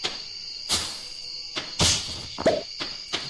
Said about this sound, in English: listen to that no it's the popping ah. it's those pops as you harvest things you, you go and you cut ah. grass and you harvest fiber. You plant crops and you have to water them every day, and it's a little bit like popping